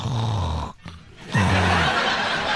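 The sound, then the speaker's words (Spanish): A man imitates loud snoring with his voice, two drawn-out rattling snores separated by a brief pause, prominent with no other talk. “roncando, ¿no?”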